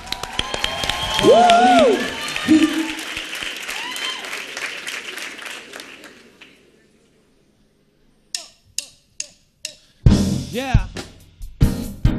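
A crowd at a talent show final bursts into loud applause mixed with whoops and cheering for a contestant, the clapping fading out over several seconds. After a brief silence, a few scattered claps ring out before music begins.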